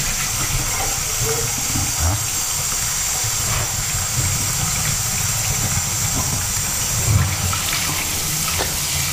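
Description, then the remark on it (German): A coffee cup being rinsed under a running tap: a steady, loud rush of water throughout, with a couple of dull bumps as the cup is handled. No one speaks. “Die müssen wir natürlich ein bisschen besser abspülen, weil da war Kaffee drin.”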